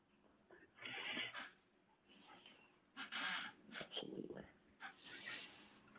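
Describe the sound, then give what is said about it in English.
A child's toy in a child's room, bumped by a foot, gives several short, loud honks at irregular intervals, each sounding a bit like a goose or squawking bird. “he's got his little toy right here. I think my foot hit it.”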